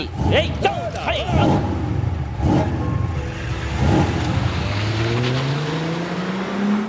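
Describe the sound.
Brief voices at the start, then a car engine rumbles and revs, its steady drone climbing in pitch as the car accelerates away over the last couple of seconds.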